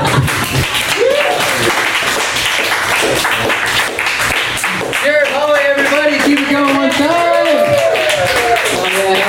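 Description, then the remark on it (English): An audience at a comedy show claps steadily for several seconds in a dense, sustained wash of applause, with a voice calling out loudly over the clapping partway through. “Give it up for yourselves for being here.”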